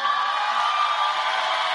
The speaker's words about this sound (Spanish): Sí, denle un aplauso a estos cinco, por favor.